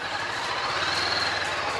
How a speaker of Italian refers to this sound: Ora sentiamo il traffico con molta calma lentezza e precisione